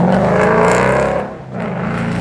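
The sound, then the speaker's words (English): A Mustang driven by a woman drives past with a loud, rumbling engine drone full of low harmonics. The roar briefly dips midway, then swells again. No one speaks. “That was a chick in the Mustang.”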